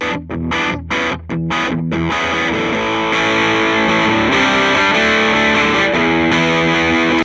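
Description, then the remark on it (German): Loud, gritty distorted electric guitar recorded through an amp with two microphones, an angled mic blended with a gritty-sounding mic for more bite, opening with a few choppy stabbed chords and then sustaining a thick, buzzing wall of chords. No one talks. “Man möchte einen fetteren Sound haben, dann nimmt man das, das schräge Mikrofon und schiebt das Grätzige für ein bisschen mehr Biss dazu.”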